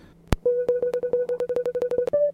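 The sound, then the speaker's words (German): After a sharp click, a barcode scanner app gives a fast run of short electronic beeps that speed up as it nears the barcode on a Coca-Cola PET bottle, ending in a brief higher-pitched chime. Clear and alone, with no talking. “So, was man jetzt gehört hat, waren kurze Abfolgen von Piepstönen je näher ich am Barcode bin, desto schneller piepst es und irgendwann gibt es dann dieses Klingelgeräusch”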